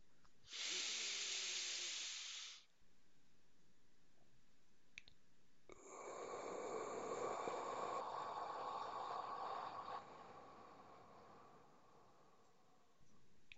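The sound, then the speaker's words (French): One slow, deep breath in a breathing exercise: a hissing two-second inhale through the nose, filling the belly, a pause, then a longer, deep, airy exhale through the mouth trailing off. No one speaks. “On inspire par le nez en gonflant le ventre, en sortant la poitrine et en redressant les épaules et on expire par la bouche profondément.”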